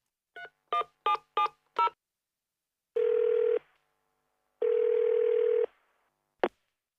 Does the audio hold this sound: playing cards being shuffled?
no